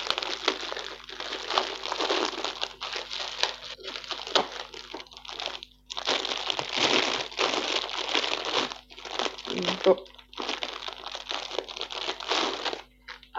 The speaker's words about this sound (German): jetzt habe ich hier riesige Lebkuchen von Hammermühle. Ähm, da sind obendrauf auch nochmal drei Mandeln auf jeden Fall drin. Das kann ich schon erkennen. Und jetzt müsste ich die Packung aufbekommen.